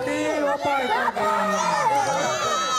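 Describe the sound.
A crowd of people screams and shouts excitedly at the finish line of a chicken race, the Kaohsiung, Taiwan qualifier for Taiwan's fastest hen, overlapping voices rising and falling in a dense, loud, continuous clamor with high-pitched yells throughout.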